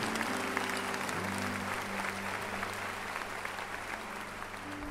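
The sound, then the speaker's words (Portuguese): Sustained audience applause for God at a religious gathering, a dense, steady wash of many hands clapping at an even loudness throughout, with a low tonal hum underneath and no one speaking. “Vamos aplaudir o nosso Deus maravilhoso.”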